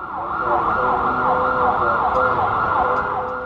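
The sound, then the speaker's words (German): A loud emergency vehicle siren wails continuously with a fast wavering pitch, layered over dense road traffic rumble in a busy city street in Cairo. “Sirenen, Gebetsrufe, infernalischer Verkehr und absolutes Chaos.”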